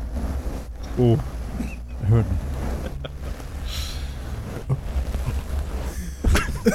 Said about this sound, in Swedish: Jag ASMR bara. Ja, just det. kan, du inte, kan du inte gnugga skägget lite så här? Här är för lyssnarna.